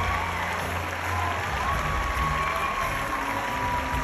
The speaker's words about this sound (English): So uh, here is the the crowd giving Will Smith a standing O. Wild cheering.